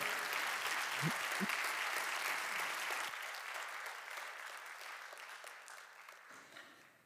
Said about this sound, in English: Let's clap our hands one more time to the Lord today.